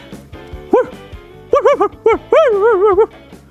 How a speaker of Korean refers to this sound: 아니 근데 말은 안 하고 개 짖는 소리가 오빠 입에서 나오더라고요.